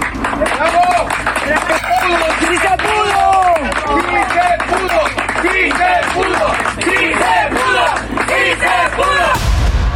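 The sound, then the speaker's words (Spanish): A crowd applauds steadily for about ten seconds in tribute to Hugo, the clapping dense and loud, with many voices cheering and calling out over it before it cuts off abruptly. “Un aplauso para Hugo.”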